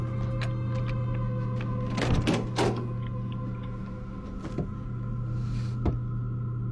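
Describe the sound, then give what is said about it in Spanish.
A locked door with a painted eye is tugged and rattled against its padlock, a brief cluster of metallic clunks and scrapes midway, with scattered clicks over a steady low mechanical hum. “La puerta está cerrada con un candado. Trata de abrirla.”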